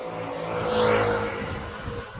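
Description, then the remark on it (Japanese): A motorcycle roars past, its engine whine swelling to a peak and then fading away over about two seconds, with no talking. “うわ、バイクが、”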